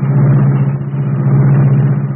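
The Black Beauty, the sleek, streamlined car of the Green Hornet, roars into life at the push of a button in its secret hiding place inside a building on a dark side street. Its engine rumbles loudly and steadily, a deep continuous drone with a throaty low hum that holds at the same level throughout, with no voices.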